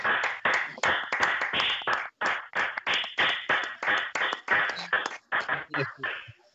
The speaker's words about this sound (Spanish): Bueno, yo creo que podíamos dar un aplauso nosotros aquí antes de salir al balcón, ya para todos ellos, ya por empezar.